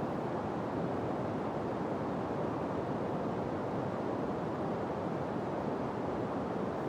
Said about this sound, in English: Pink noise is white noise, but with fewer higher frequencies. So it's a little softer than white noise. You sometimes it's described as flat or even. So here's a sample of pink noise.